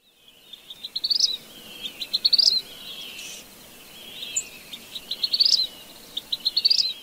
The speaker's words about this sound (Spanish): El pájaro que estamos escuchando es el mosquero cardenalito, una especie hermosa y colorida que sorprende por su increíble agilidad al momento de cazar pequeños insectos.